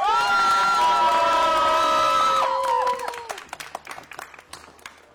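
At a wedding, guests burst into loud applause and cheering as the groom is called to make his entrance, with high whoops and shouts over dense clapping; the cheers fade after a few seconds, leaving scattered claps and a few voices.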